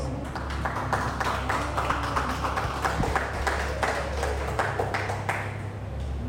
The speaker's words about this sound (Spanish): ¿Cuántos han decidido a ser interrumpidos por Dios? Amén. Otro aplauso a Dios.